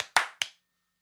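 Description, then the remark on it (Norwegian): Three sharp hand claps in quick succession, the first cut off at the start, each a crisp, bright smack with a short decaying tail, followed by silence. No one speaks. “Vi skal faktisk gi dem en applaus.”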